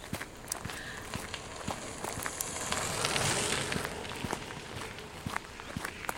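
Footsteps crunch steadily along a path covered with dead leaves fallen from small holm oaks, a regular walking rhythm of crisp rustles and crackles over a soft, airy background hiss, with no one talking.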